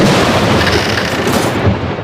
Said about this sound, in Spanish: La tormenta Juana destrozando tu antena suena así.